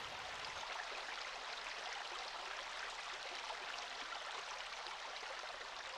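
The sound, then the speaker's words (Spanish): A steady, unbroken rush of flowing stream water in the Maule region, a soft even hiss with no pauses and no voices, holding the same gentle level throughout. “Entonces es como que la región del Maule sonara agua, pero como un espíritu solamente, porque cada vez es menos agua.”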